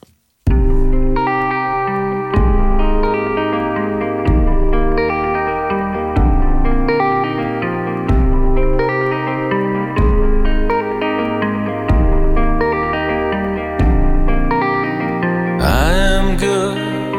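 A rock band song plays with steady, loud guitar chords repeating in a slow, even pattern over a low bass line, washed in effects, with a brief swelling sweep near the end and no vocals.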